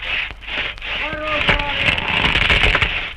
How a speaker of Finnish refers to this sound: Tuolla vähän matkan päässä näemme kymmenkunta jätkää suuria kuusia kaatamassa. Tahdikkain iskuin hirveitten terät iskevät puiden runkoihin. Siellä täällä helähtää justeeri soimaan suuri kahden miehen käyttämä saha. Kuuluu varoitushuutoja